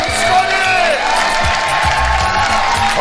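A large crowd cheers and applauds steadily after the first fight of the evening, a dense wash of clapping with whoops and shouts rising above it, loud and sustained for the whole moment.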